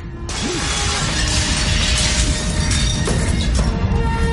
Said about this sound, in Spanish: Coge el hacha y rompe una ventana enrejada.